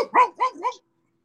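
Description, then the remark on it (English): A dog barks three times in quick succession, fairly loud, each bark short and yappy, then silence follows. “You have a dog?”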